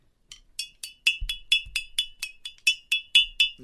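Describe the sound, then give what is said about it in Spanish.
A bottle and shot glasses (caballitos) clink together about a dozen times as the bottle is brought out for Friday drinks on an afternoon show, a quick, steady rhythm of bright, ringing high-pitched chimes, with a few soft low thumps beneath and no voices. “A ver, sácame la botella. Deja, deja los, caballitos.”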